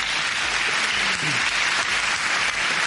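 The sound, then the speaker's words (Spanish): Steady applause from a group, a dense, continuous wash of many hands clapping at even loudness for the full three seconds, with no single claps standing out. “Un aplauso, claro que sí”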